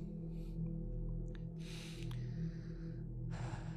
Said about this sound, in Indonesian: sorry nafas gue tiba-tiba sesek anjir sambil sambil minum dulu bentar